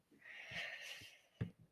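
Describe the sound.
A drawn-out, raspy throat-clearing growl used as a beatbox throat bass sound, formed in the throat rather than at the palate, sustained for about a second, then a sharp low thump and a short grunt near the end. Moderately loud, no talking.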